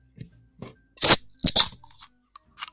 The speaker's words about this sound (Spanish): destapando una cervecita para acompañarte.